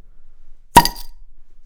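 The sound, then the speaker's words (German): A single sharp pop of a swing-top Flensburger beer bottle being opened, fairly loud, with a brief airy fizz trailing off afterward and quiet surroundings. “Ich habe allerdings hier so ein, so ein flottes Flensburger vor mir stehen. Soll ich den Arne mal in die Folge reinploppen?”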